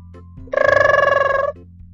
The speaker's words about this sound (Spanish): Es el timbre, es la hora de entrar a la casa grande.